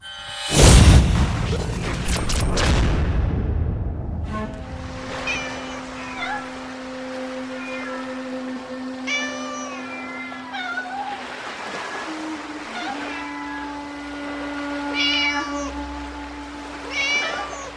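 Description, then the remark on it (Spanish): A crowd of many cats at an island cat sanctuary in Japan meow and yowl over one another, their calls rising and falling in overlapping waves after a loud, sharp crash at the start; the chorus stays steady. “Madre mía, primero fueron caballos, después gaviotas a, cientos y ahora muchos, muchos, pero muchos gatos.”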